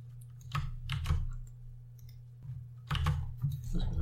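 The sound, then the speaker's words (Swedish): Keys on a computer keyboard with wine spilled on it are pressed in two short bursts of muffled, slightly sticky clicks, with a pause between them and a low steady hum underneath. “jag, har, jag har spillt vin på tangentbordet, så jag kan inte skriva.”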